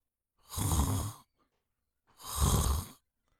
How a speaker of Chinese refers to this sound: 一阵均匀的呼吸声从房子里传来。